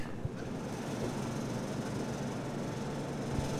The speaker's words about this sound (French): On entend juste les climatiseurs, donc ça s'entend pas, je pense.